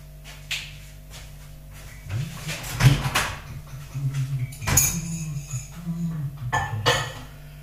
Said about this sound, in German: Tasse wegstellen.